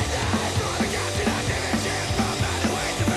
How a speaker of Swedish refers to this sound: Grindcore igen. Fast väldigt punkig grindcore eftersom det är inte så köttigt utan det är lite mer eh, diskantigt.